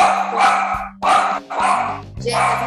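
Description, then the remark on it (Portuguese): Dogs bark in a rapid string of loud barks, four or so bursts with short gaps, joined by a low steady hum underneath. “Barulhados, cachorros.”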